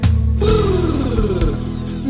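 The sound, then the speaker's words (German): A loud electric drill whirs for about two seconds, its high motor whine steady with a slight wavering pitch, with a low droning hum beneath it. “Das macht der Bohre und zusammen bauen wir weiter bis zum Abendbrot.”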